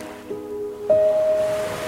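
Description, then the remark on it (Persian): Ocean waves wash in a steady, continuous surf roar. Midway, a clear sustained ringing tone rises briefly above the water and then fades. No one speaks. “به صدای دریا گوش بدید دریا هنوز هم مرکز و مظهر عشقه”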